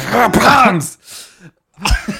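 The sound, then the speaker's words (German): A voice mimics a man's hoarse, throaty cough, one he has had for ten years: a strained voiced rasp, then a short breathy pause before a second rough cough bursts out loud. “Den Husten hat er schon seit zehn Jahren.”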